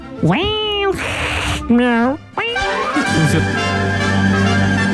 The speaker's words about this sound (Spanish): Sonido de gato.